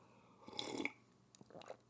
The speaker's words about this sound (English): As I sip my tea, uh, hot green tea is is is the nectar of the gods, if you ask me.